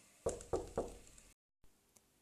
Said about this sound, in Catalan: Va picar la porta.